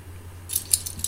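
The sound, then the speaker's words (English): Keys jangle in a quick, bright metallic rattle, starting after a short quiet lead-in and continuing in several small clinks over a low steady hum. “there's my keys, yes sir.”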